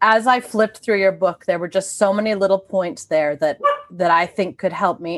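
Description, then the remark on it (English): A dog barks a few times in the background, partly buried under a woman speaking steadily in the foreground. “Sorry, that's my dog barking in the background again.”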